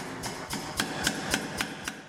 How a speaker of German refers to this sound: Damit es nicht zu anstrengend für ihn wird, hilft ihm dabei eine Maschine, ein sogenannter Lufthammer. Schmieden ist eine Verformung durch Hammerschläge.